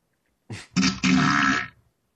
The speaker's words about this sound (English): That was a that was a poopy fart.